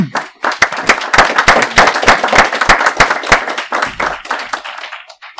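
A group of people claps steadily, with dense overlapping hand claps and a few sharper individual claps standing out, fairly loud throughout and thinning out slightly toward the end.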